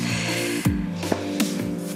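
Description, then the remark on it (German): A few short, rough throat-clearing bursts from a person with a crumb of bread stuck in the throat, spaced unevenly over a couple of seconds, with no talking in between. “Ich muss mich kurz räuspern immer noch irgendwie so ein Körnchen vom Brot im Hals.”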